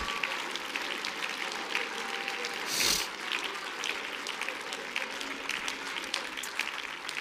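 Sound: audience clapping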